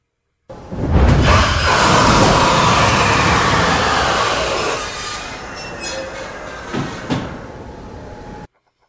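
Space shuttle landing gear dropping: a loud, sustained mechanical rushing roar with a hissing edge that gradually eases off, followed by a couple of sharp clunks near the end. No voices.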